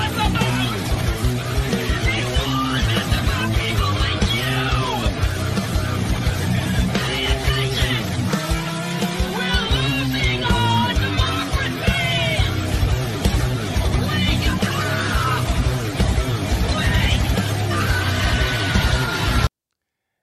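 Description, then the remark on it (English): Loud, dense rock remix of a video of a woman talking about Republicans plays steadily for about twenty seconds, her harsh, metal-style screamed vocal riding over heavy distorted guitars and drums. “The, the metal scream, she got the metal scream down.”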